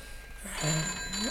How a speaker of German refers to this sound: Ja, diesmal ist es das Telefon, Charles.